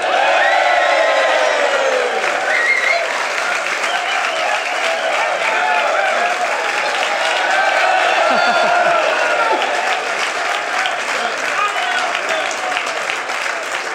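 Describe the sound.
A large live show audience in Westport, including Mayo fans, applauds and cheers loudly and continuously, with dense clapping, scattered whoops and shouting voices for the whole stretch.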